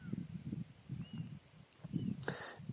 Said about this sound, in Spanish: Los pájaros que cantan y, por allí se escucha el riachuelo. Y hay brisa, me imagino que la escuchas. pasan las aves muy cerca de mí.